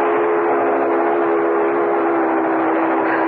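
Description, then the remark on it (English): A coal train carrying coal to the furnaces roars past, a loud, steady rumble of wheels and cars with a sustained whistle blaring over it throughout, filling the whole stretch without any voices. “There it goes every hour, day and night, carrying coal to the furnaces. Mm, oh, it sounds like she's coming right through this house.”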